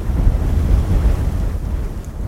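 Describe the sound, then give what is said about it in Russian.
Steady roar of sea surf mixed with gusting wind buffeting the microphone, a continuous low rumble with no distinct breaks, fairly loud, no voices. “Закрой на минутку глаза. Море.”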